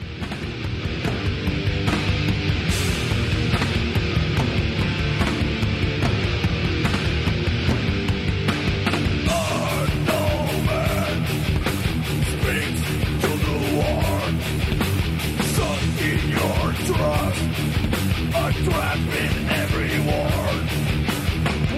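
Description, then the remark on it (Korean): Loud, dense heavy metal plays throughout, driven by pounding, tribal-style drumming with steady rhythmic hits, and a vocal line appears to come in around the midpoint over distorted guitars. “드럼 무슨 너클볼런에 원주민들이 쳤나요, 씨발?”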